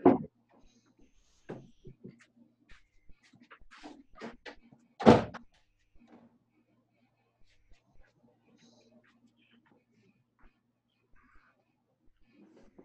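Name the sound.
door being closed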